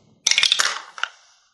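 Dice are rolled for a perception check and clatter across a hard tabletop in a quick flurry of sharp rattling clicks, with one last small knock as they settle, then quiet. No one speaks.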